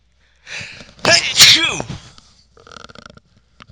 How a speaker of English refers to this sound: Um, hold on a second, guys. I gotta sneeze.